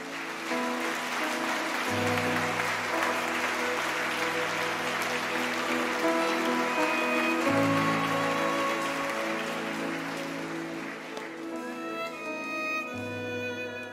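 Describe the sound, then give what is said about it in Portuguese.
A standing audience at a church celebration claps steadily and loudly for the whole stretch, a dense unbroken patter over sustained musical notes whose low bass tones shift a few times. “Pode aplaudir mais forte, irmão.”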